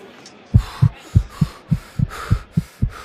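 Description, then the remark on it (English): A rapid heartbeat thumps in a steady, quick rhythm, about nine deep, muffled beats, starting after a brief quiet moment, with no voices; a runner's heart beating fast from nervousness just before the start of a race. “before I start the race, uh, the nervousness is making my heart beat fast and it's making me want to breathe fast, so I have to slow down my breathing.”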